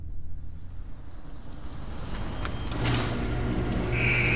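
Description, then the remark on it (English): A car engine rumbles low and steady as it rolls slowly into an automatic car wash. Mechanical clunks follow, then a high whine as the wash machinery starts up near the end. “They arrive at the automatic car wash, and the process begins.”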